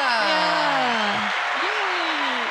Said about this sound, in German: Ein Applaus, warte mal, das muss ich aber erstmal einschalten. Und dann muss ich mich immer, muss ich mir noch erinnern, was der Applaus ist.